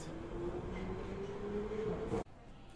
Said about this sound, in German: Das sind wir doch einfach schnell, wirklich von King's Cross schnell nach Covent Garden düst. Ja, hat man es vorher gehört, der U-Bahn? Ich hoffe es.